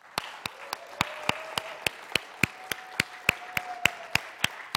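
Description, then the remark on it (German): A group claps together for the coffee team in a steady, even rhythm, sharp beats about three per second over a low wash of crowd noise, moderately loud and continuing throughout. “Lasst uns unserem Kaffeeteam einmal einen kräftigen Applaus geben.”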